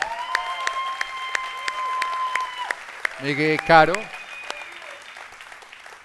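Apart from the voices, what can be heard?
audience applause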